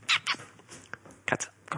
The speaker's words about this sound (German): machen die Katzen die ganze Zeit Radau